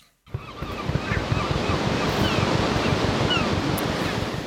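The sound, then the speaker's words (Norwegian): Ocean surf rumbles and washes continuously after a brief silent start, a dense, steady roar of breaking waves with wind-like hiss on top, fairly loud. “Vi skal til sjøs.”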